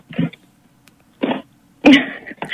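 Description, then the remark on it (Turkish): A single abrupt, forceful sneeze bursts out after a couple of shorter breathy noises, amid quiet. “Aa üstüme iyi sağlık.”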